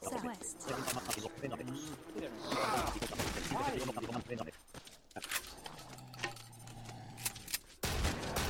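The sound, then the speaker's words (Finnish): Rapid bursts of loud video game gunfire from an automatic shotgun, sharp blasts crowding together in quick succession over busy in-game noise, with a voice occasionally speaking underneath. “Tämä on pikkusen epäloogista, että toi haulikolla pystyy ampumaan sarjatuulta.”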